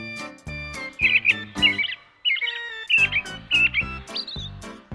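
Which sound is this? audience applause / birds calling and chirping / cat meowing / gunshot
birds calling and chirping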